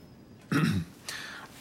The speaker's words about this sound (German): Er steht auf und räuspert sich.